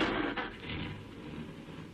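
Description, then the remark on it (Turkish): A car engine starts up and settles into a steady, low rumbling idle, fairly loud, with no voices over it. “Şu arabayı çalıştırayım bari.”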